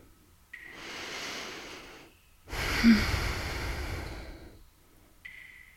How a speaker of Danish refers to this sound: Jeg tager endnu en dyb indånding.